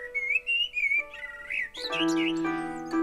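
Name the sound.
nightingale singing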